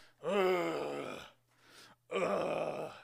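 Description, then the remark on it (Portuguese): A man running at about 5 in the morning lets out two long, strained groans of exhaustion, the first drawn out with a wavering pitch, a short breathy pause between them. “Não, 5 horas da manhã, eu berro de cansaço ali.”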